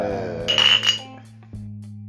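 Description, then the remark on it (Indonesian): Glasses clink together in a toast, two quick bright taps with a short ringing tone, followed by a near-silent pause over a low steady hum. “Uh, cheers dulu, cheers dulu.”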